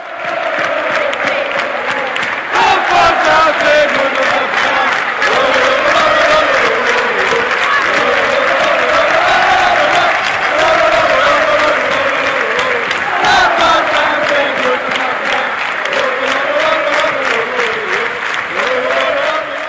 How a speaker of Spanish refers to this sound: Bueno, pues no podíamos acabar con otra sintonía, con otro cántico que el Rafael Sastre, nuestro capitán, que tanto y tantas veces se cantó en el Estadio del Molinón